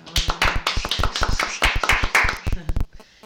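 Light applause from a small group: a quick, uneven patter of hand claps lasting about three seconds, moderately loud, then tapering off abruptly.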